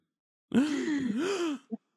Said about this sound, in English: I mean, you could try it. I mean, try it. Give us a good gasp